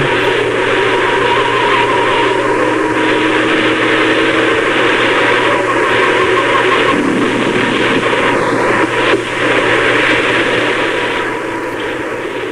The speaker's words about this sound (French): On dirait le bruit des soucoupes volantes dans, les années 50.